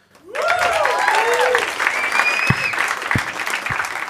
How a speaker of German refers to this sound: Fetten Applaus.